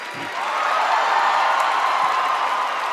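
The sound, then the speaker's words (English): A large audience at the Tony Awards gives Robert De Niro a standing ovation, breaking into sustained, thunderous applause, a dense steady roar of clapping with faint cheers mixed in, holding loud and even from start to finish with no one speaking. “Standing ovation. Oh, they're standing for it.”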